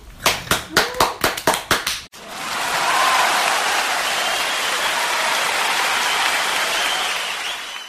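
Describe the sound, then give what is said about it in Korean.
A quick run of about nine sharp handclaps, then a loud, dense wash of crowd applause celebrating someone getting a personal business registration certificate, swelling in and holding steady until the end, with no talking. “오늘 개인 사업자 등록증 발급 받았습니다. 아, 박수.”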